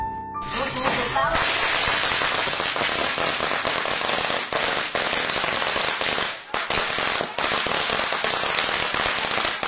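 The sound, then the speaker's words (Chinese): Strings of firecrackers, brought by relatives and friends to a family home by local custom to celebrate a son's return from hospital, burst in a loud, relentless rapid-fire crackle, dense sharp pops running together almost without pause for several seconds after a brief quieter opening. “按当地的习俗呢，不少人还提来了一挂挂鞭炮，给这个命大的孩子冲喜。”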